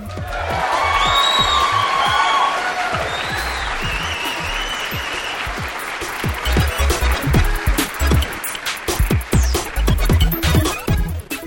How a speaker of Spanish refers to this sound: Desde aquí, Geek les dedicamos un aplauso.